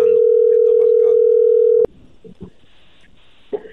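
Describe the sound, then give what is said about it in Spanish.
A steady, loud telephone dialing tone, placing a radio call-in call to a caller in McAllen, Texas, hums at one low-mid pitch for almost two seconds, then cuts off abruptly, leaving quiet line noise and a few faint murmurs. “Ahí está marcando.”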